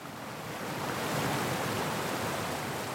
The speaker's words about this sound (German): Noch rauscht die Ötztaler Arche mit einer alpenweit einzigartigen Wucht durch Schluchten, Blockwerk und Ebenen, von den Gletschern hinunter in den Inn.